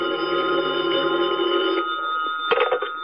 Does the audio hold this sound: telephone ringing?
yes